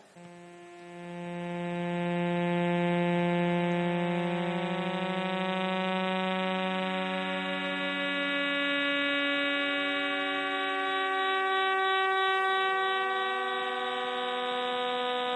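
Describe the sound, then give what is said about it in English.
Signals of the 16 recorded millisecond pulsars in 47 Tuc turned into sound: a steady, sustained chord of several layered tones that hums like a horn, holding at an even loudness for about fifteen seconds with no voices. “And right now, tonight, while we're sitting in this room, the 16 recorded millisecond pulsars in 47 Tuc are making this sound right now.”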